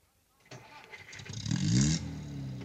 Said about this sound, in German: Fahr den Wagen in den Seitenweg.